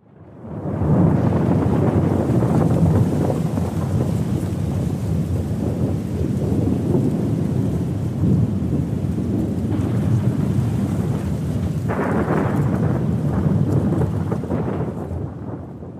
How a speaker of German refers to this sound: Also das war, glaube ich, unverkennbar ein Donnergrollen, oder, Herr Huotari?